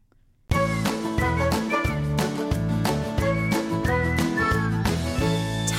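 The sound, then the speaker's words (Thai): Full-band music, played during a break in the show Catch Up Weekly, kicks in after a brief silence, with steady bass notes, rhythmic percussive hits and a bright melodic line, playing loud and continuous with no voices. “เดี๋ยวเราพักฟังเพลงกันสักครู่นะคะเดี๋ยวกลับมาพูดคุยกันถึงข้อควรรู้ก่อนไปสัมภาษณ์งานกันค่ะ”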